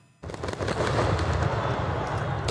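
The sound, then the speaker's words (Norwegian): A chaotic night street protest in Minsk, Belarus, with dense crowd noise and repeated sharp bangs and pops of fireworks and rubber bullets, sustained and loud throughout, with voices shouting slogans in the mix. “Fyrverkeri og slagord ble møtt av gummikuler og tåregass.”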